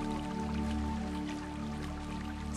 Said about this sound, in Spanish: Esta fuente me abstrae por completo de la realidad. Solo observo un suministro ilimitado de energía a través del agua, que fluye a un ritmo constante, envolviéndome con su sonido